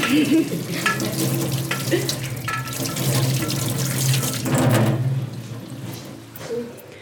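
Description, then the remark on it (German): Water runs steadily from a tap for several seconds, fairly loud, with splashing changes as hands are washed under the stream. No one speaks. “Mit Erde die Hände waschen und dann kannst du gut die Hände waschen.”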